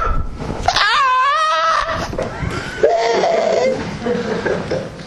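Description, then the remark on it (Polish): A man's voice deliberately does a silly imitation of a rooster crow: a loud, drawn-out, wavering high-pitched call that bends up and down, followed by a lower, warbling continuation that trails off. “Specjalnie zrobiłem takiego głupiego koguta, bo wiecie o co chodzi?”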